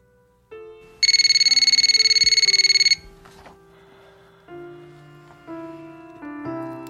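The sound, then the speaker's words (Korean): A telephone rings with a loud, rapid trilling burst lasting about two seconds, then stops unanswered while soft background music carries on underneath. “전 정처 없이 걷고 또 걷고 그러다 그에게 전화를 걸었습니다.”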